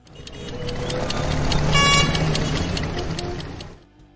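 Steady street traffic rumbles, and midway through a car horn blares once for about half a second over the engine noise. No one speaks.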